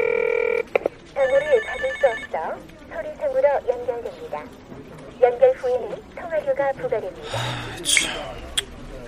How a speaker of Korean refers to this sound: 전화를 걸었을 때요. 네. 신호음이 한 번만 가고 바로 지금 전화를 받을 수 없다. 이렇게 나오는 거는 100% 차단이죠.